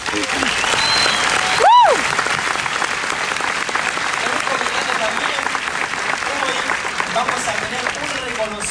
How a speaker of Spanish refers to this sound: Son nuevos diamantes de la organización. Este, un aplauso para ellos.